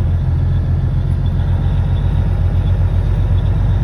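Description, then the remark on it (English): A steady, heavy rumble of trucks leaving the Flying J and filling an overpass, rolling along a highway, a continuous low drone of engines and tires that stays loud throughout, with no voices. “So we've got a whole overpass of trucks leaving the Flying J.”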